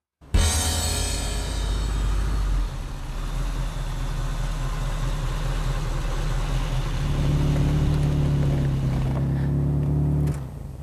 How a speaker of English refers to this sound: This is a 1987 Ferrari 328. Unfortunately, it's not my car. I'm driving it because we're in Twinsburg